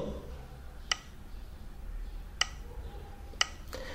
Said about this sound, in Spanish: Al final, si nos vamos con BOA flecha derecha, tendremos una barra de progreso donde oiremos el clic típico